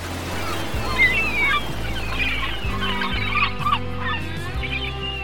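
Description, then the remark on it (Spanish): Seagulls fly near a beach and cry out repeatedly in shrill, overlapping calls over a steady low rumble of wind and sea waves. “Pensar en, en una playa tibia bajo el sol, sintiendo el aire en tu cara, el aire jugando con tu pelo, oyendo las olas del mar las gaviotas volando cerca de ti.”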